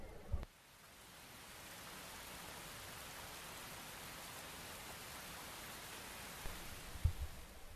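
Steady, even rainfall hisses across the whole clip after a brief thump at the start, with a couple of soft low knocks near the end and no voices.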